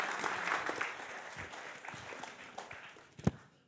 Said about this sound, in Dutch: Geef hem vast een warm applaus. Hij gaat achterin zitten.